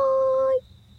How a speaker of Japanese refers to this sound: スズムシうるさいね。